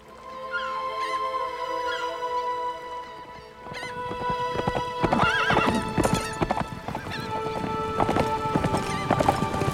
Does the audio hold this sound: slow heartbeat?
no